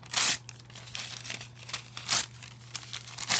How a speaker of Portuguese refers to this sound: Rasgando aqui uma folha de papel, tá? Que eu tirei aqui do meu caderno, tá? Vocês estão ouvindo aqui, eu, eu, eu, eu, rasgando aqui uma, uma folha,